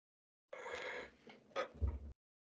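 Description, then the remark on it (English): A long, breathy yawn with an open, airy drawl that trails into a low exhale, fairly clear, with no talking over it. “Sorry, you, you do not you do not bore me into a yawn. I, am just tired.”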